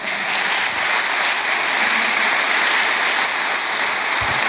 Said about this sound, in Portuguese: Se é a primeira notícia boa, glória a Deus por isso. Pode aplaudir Jesus, não tem problema não.